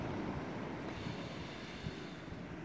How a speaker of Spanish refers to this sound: Bueno, con este viento y las olas de fondo me despido, intentando sacar lo mejor de mí como ser humano y, bueno, compartiéndolo con vosotros.